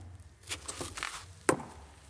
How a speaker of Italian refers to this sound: Sento già un rumore sulla scalinata. È la domestica che sale. Mi sembra che non sia sola. Sale lentamente. Riconosco i passi di vostra sorella.